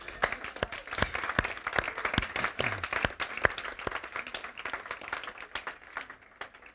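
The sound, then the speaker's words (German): A church audience applauds steadily to welcome a three-week-old baby, many hands clapping in a dense, continuous patter of sharp claps that holds fairly even for several seconds before easing slightly at the end. “Applaus”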